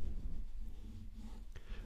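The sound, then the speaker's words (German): A pen colors heavily in purple on paper, with dense, continuous scratchy strokes, fairly quiet, with a brief tap near the end and no talking. “Das ist nämlich einer von den anderen Stiften. ich male mal ganz doll lila.”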